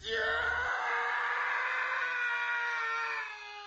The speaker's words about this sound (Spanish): Entonces dicen que llegaron a una cueva y que ahí fue cuando ya se escuchaba bien cabrón que estaban allá adentro. Y eran gritos así de agonía.